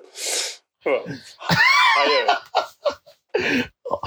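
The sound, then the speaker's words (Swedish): A sharp sneeze bursts out at the start, followed by a voiced, breathy exhale, then a person speaks briefly afterward. “Ursäkta mig. Frosigt.”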